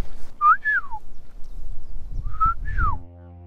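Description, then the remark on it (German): A person whistles two fluting, bird-like phrases imitating a golden oriole's song, each a quick rising note sliding down, separated by a short pause, clear over faint background rumble. “brüten ganz oben 40 Meter Höhe in alten Pappeln sieht man so gut wie nie, man hört die eigentlich fast nur. Diesen flötenartigen Gesang so.”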